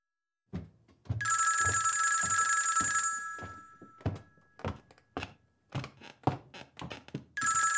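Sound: telephone ringing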